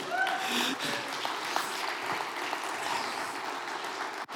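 A crowd breaks into sustained applause, dense steady clapping that stays loud for several seconds, with a few brief whistles or cheers mixed in near the start.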